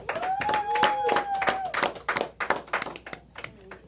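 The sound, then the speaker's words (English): An audience at an induction ceremony breaks into applause for inductees, a dense patter of many hands clapping that holds strong before thinning into scattered claps. A faint tone wavers underneath, and a few voices are briefly audible. “put your hands together, man.”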